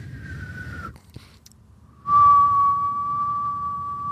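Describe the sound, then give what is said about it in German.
A voice whistles a steady, mid-pitched tone imitating a ringing in the left ear that has lasted a week, holding it for about a second, pausing briefly, then sustaining it again more loudly for two seconds over low background rumble. “Nein, es ist ein Pfeifton halt.”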